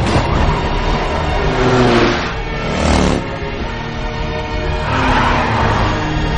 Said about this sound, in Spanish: Ella mete la marcha atrás y se aleja. Los policías les persiguen. Ella conduce marcha atrás en sentido contrario al intenso tráfico.